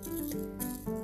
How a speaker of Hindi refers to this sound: झील के किनारे बैठे वो खामोशी के पल जहां मेरे कानों पर लटकते झुमके का मधुर शोर